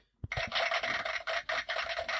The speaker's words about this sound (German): Was ist das nochmal? Applaus. Ach so, das ist Applaus, ja. ja. Klingt wie Kastagnetten. Wie so eine flamenco Stimmt, aber wie so ganz viele.